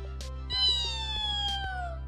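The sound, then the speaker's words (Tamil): A voice imitating many caterpillars all giving the same high whistle at the same time: one long, steady, shrill tone that glides slowly downward for about two seconds over a low background hum, with no talking. “எல்லாரும் அதே மாதிரி செஞ்சதுக்கப்புறமா எல்லாரும் ஒரே நேரத்தில் ஒரே மாதிரி பீன விசில் கொடுக்க ஆரம்பித்தாங்க”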